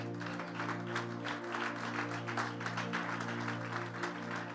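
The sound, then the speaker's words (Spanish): After a prayer, a crowd applauds steadily for the Lord, a dense wash of many hands clapping at a moderate level, with a sustained low droning tone held underneath and no one speaking. “Un gran aplauso para nuestro Señor.”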